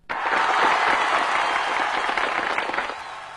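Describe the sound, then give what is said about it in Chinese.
A burst of steady applause from a crowd, many hands clapping densely and evenly for about three seconds before tapering slightly at the end, with no voices over it. “我们在这里一定要给他掌声。”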